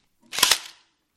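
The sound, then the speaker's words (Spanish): Two sharp, loud pops from an airsoft pistol fired in quick succession, each a crisp snap with a short fading tail, and no talking. “Y esto os lo digo con una pistola de airsoft en la mano.”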